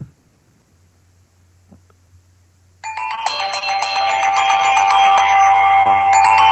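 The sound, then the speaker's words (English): A custom Palm Pre phone ringtone starts after a few seconds of near silence, a bright, layered electronic melody of chiming tones that plays loudly and steadily to the end, with no talking. “Okay, here here's my custom ringtones. This is my first one. This is from the Palm Pre.”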